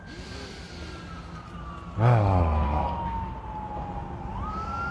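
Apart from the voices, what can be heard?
emergency vehicle siren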